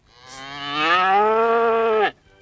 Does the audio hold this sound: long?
no